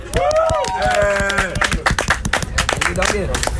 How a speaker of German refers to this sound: Geiles Feedback, ein Applaus dafür.